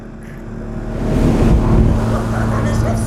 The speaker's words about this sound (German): Diese Sportboote kommen aber auch aus dem Nichts.